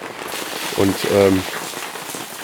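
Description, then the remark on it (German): Steady, heavy rain hisses and patters throughout, with a continuous dense wash of water pouring off the improvised drain of a stage canopy, a stretched tarp; a man briefly speaks over it in the middle. “ja, was man da hört, ist äh, der improvisierte Abfluss vom Vordach der Bühne, der nicht bei dieser Regenmasse, die jetzt gerade runterkommt, halt nicht hilft.”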